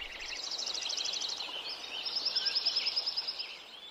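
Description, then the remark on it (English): A dense outdoor chorus of many birds calling at once in Lincoln Meadow at Yuba Pass, California, before the forest was logged, with high overlapping chirps and a rapid, evenly pulsed trill rising out of the mix midway, over a soft, steady natural ambience. “An example of this is Krause's recording of Lincoln Meadow at Yuba Pass, California. Here it is before the forest was logged.”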